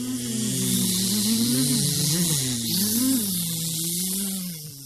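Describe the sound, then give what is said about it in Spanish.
A dense, continuous buzzing of many flies, fairly loud, with pitches that waver and overlap over a hissy background, fading slightly at the very end. “Un zumbido en una vasta noche. Las moscas.”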